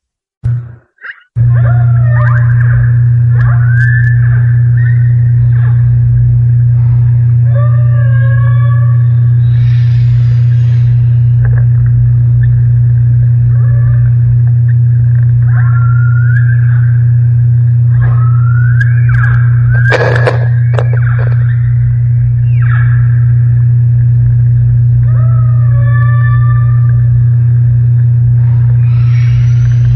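Humpback whale song recorded underwater: rising and falling moans and whistling cries, some repeating in phrases, over a constant low engine-like hum. No one speaks.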